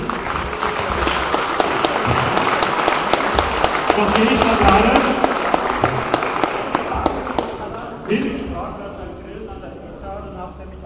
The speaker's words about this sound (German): Einen kleinen Applaus für unseren Preisträger